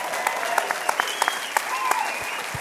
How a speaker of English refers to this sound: Whatever with that clap, I had to ask for it.